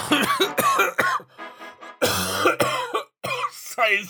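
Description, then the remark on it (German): A run of harsh coughs in quick irregular bursts, with a brief lull before a louder, raspier hacking fit, then several more short coughs to finish. “Husten.”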